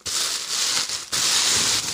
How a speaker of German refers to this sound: fang mal mit dem Weißen an, genau, das, was weiß verpackt ist. Das ist hier in äh, weißen wie nennt man dieses Papier? Raschel, extrem Raschelpapier eingepackt und mit einer Paketschnur zugebunden.